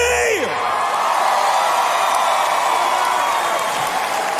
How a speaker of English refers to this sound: Now, I, I'm playing this clip just so you can hear the crowd, realize probably millions of people watching this on TV, and get a feel for how many in our society are thinking these days.